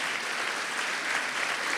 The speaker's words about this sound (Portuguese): Salva de palmas para esse casal maravilhoso.